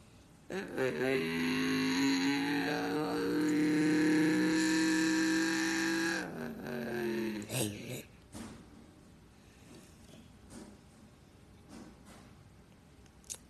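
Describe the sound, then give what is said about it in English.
Race car engines drone in a loud, steady harmonic hum for several seconds as the cars roll slowly off the grid, double file, before the start at Rockingham. The pitch wavers slightly, then the engines cut down to a quieter rumble with faint scattered clicks. “As we're rolling down the cars slowly down.”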